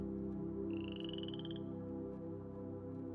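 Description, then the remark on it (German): A dense chorus of toads croaking steadily and fairly loudly, with a brief high-pitched trill rising above them early on. No one speaks. “versetzte das Brummeisen und spie zugleich drei Kröten aus.”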